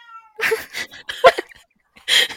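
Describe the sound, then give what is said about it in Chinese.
A household cat meows several times in quick succession, bright and whiny with a drawn-out, wavering tone, then falls quiet briefly before one last loud meow. No one speaks. “我们家的猫它真的也很尴尬，它就是一脸跟你一样尴尬脸，然后个性也超尴尬。”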